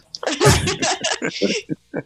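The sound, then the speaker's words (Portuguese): A female singer in a song mimics a sneeze, a loud breathy burst followed by a few short, choppy vocal bursts that trail off like stifled laughter. “É ela faz que tá assim, espirrando, né?”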